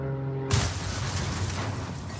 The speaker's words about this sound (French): Je ne vois plus rien. L'appareil frémit comme un vieux tas de ferraille je perds le contrôle. Tout s'écrase dans un grand fracas.